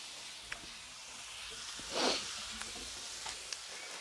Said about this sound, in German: So, und dann legen wir uns das hier gleich mit in die Pfanne rein und braten das an mit den Zwiebeln dazu und dem Knoblauch für ein geiles Aroma.